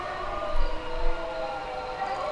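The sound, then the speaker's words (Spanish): An ambulance siren sounds from outside as it passes, a steady, sustained wail at moderate volume over a low background rumble, holding its pitch throughout the short stretch. “Y gracias a la ambulancia.”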